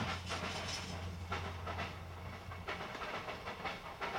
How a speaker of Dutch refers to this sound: Nou, er komt een treintje voorbij.